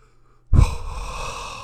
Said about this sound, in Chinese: 可硬是咬着牙，一直坚持到了门口，这才敢轻轻的喘了口气。